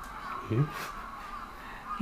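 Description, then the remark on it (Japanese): A crow caws once as it flies off, a short harsh call set against a low background hum with faint murmuring voices; another brief sound rises right at the end. “たった今カラスが飛び立ちました、はい、はい”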